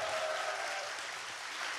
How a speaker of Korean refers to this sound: 박수 한번좀 부탁드릴게요.